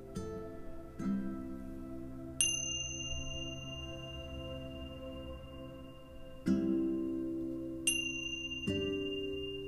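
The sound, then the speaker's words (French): Meditation bells marking the end of a meditation ring out in a slow, uneven sequence: several struck tones, some deep and humming, others bright and high, each sustaining and fading before the next. No voices are heard. “Et après d'avoir sonné les cloches, je vous invite à simplement revenir à votre rythme et ouvrir les yeux.”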